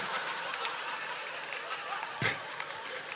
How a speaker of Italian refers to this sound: Che cosa ridete? Fermate quell'applauso, nessuna risata liberatoria, occupatela.